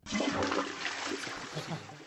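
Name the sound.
toilet flush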